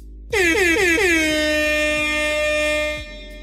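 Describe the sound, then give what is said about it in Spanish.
A loud DJ air horn blasts in four quick bursts, then holds one long sustained blare for about two seconds before cutting off, with no voices. “Para cerrar esta, primera parte, amerita una manifestación de DJ tarde, weón.”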